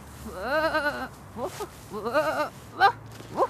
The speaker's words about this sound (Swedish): Det var ett ovanligt ljud på det här fåret. No, det är faktiskt ett ganska ovanligt får.